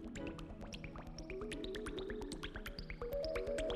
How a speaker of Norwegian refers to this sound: Det er rett og slett så hydrofobt at hvis du drypper vann på det, vil dråpene sprette opp og ned, akkurat som om de hoppet på trampoline.